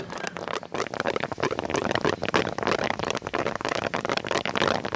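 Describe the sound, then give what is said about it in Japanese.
Gas hisses and sputters steadily out of a cow's displaced abomasum as a vet presses to let it out, a continuous rushing with small crackling bursts running through all five seconds. No one speaks. “ガスが抜けてる音です。”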